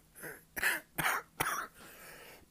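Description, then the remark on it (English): A person clears their throat and then coughs several times in quick succession, close to the microphone, with sharp bursts followed by a softer, raspy exhale. “By the way, you hear in the throat?”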